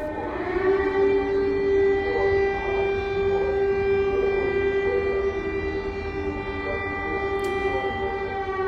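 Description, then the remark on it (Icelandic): Air-raid sirens in Lviv, western Ukraine, wail steadily and loudly, holding a strong, sustained tone with layered harmonics, the pitch wavering slightly throughout. Faint background murmur sits underneath. “Það væri í loftvarnarflutunum í Lviv í vestanverðri Ukrænum sem Valur Gunnarsson tók upp”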